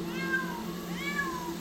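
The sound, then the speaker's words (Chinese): About a hundred caged cats, held in more than a dozen iron cages at an illegal cat-trading site on a mountaintop around 1 a.m., meow over one another. Two prominent drawn-out, rising-then-falling wails stand out, all over a steady low hum and no talking. “哇，它们的叫声是非常响亮的，非常响，我永远忘不了。”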